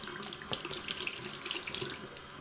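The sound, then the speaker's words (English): A sink tap runs cool water for rinsing after brushing teeth, water splashing continuously into a basin with a bright, hissing texture and small sputters, moderately loud, with no talking. “And you're supposed to rinse with cool water.”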